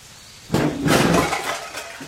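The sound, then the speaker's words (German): A couch being carried through the jungle is dropped with a single loud, sudden crash, followed by a noisy, rattling tail that fades over about a second. No one speaks. “Warum lässt du denn die Couch fallen?”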